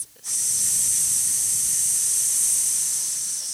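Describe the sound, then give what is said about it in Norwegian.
A steady, sustained hissing exhale on an S sound, like a long drawn-out "sss" through the teeth, held evenly for about three seconds after a brief quiet start, part of a controlled deep breath taken in for a count of four through the nose. “Ut på en S.”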